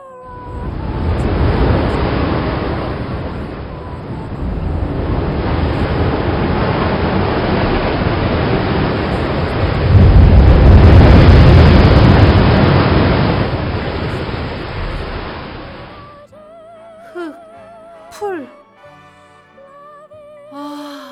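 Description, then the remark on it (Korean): Loud ocean waves roar and crash continuously for about fifteen seconds, swelling to a peak midway, then cut off abruptly, leaving a few faint, scattered tonal sounds. “아니면 파도가 넘실대는 해변가를 걸어왔다면 그럴 수도 있겠다.”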